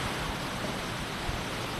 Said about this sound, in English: Soon enough, we get to a stream. A stream with a story.